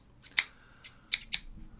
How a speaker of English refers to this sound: no real opening skit. Just a pair, a pair of scissors, I guess